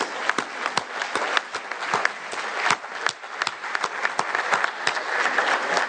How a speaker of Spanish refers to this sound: Y me dio mucho gusto estar aquí con ustedes en Puebla, iniciando el programa La Escuela es Nuestra y un aplauso a todas las madres de familia, las tesoreras.